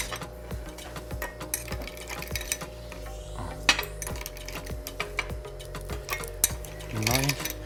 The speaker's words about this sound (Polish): Do tego dodamy lód. Tak jest.